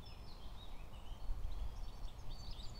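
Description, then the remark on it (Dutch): Small birds chirp and twitter steadily outdoors, with a constant low rumble of traffic from a road in the background beneath them. “Dat ik de vogeltjes goed hoor.”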